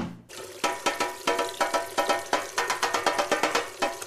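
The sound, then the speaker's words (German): Water runs into a kitchen sink with a steady rush, broken by a quick series of rhythmic splashing bursts. No one speaks. “Es gibt auch noch ein Spülbecken.”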